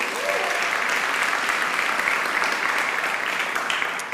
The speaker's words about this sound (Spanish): Oye, tantas circunstancias, tantos procesos, tantas situaciones difíciles, pero tú los venciste, tú estás aquí hoy con nosotros y eso se merece otro fuerte aplauso.